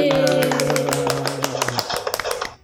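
A short burst of applause: a few people clapping quickly and unevenly, the sharp claps continuing alone after a sustained vocal tone fades out partway through.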